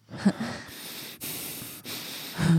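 Close, heavy breathing with a raspy wheeze: three or four long, noisy breaths drawn in and pushed out one after another, loud and airy, with no talking.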